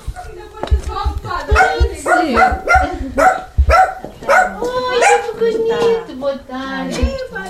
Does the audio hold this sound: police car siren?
no